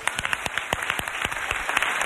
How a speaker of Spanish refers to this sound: Un aplauso para el alcalde